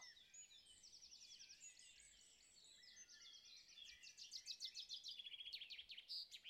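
Several birds chirp and trill continuously in the background, with rapid repeated notes growing busier and louder toward the end, over a soft steady outdoor hiss.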